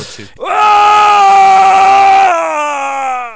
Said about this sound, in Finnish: Siinä saatiin taas oikein kunnollinen tuskan huuto ja tuskaa varmasti huutaa meidän kaikkien surulliset ja onnettomat sielumme huutaen lisää räppiä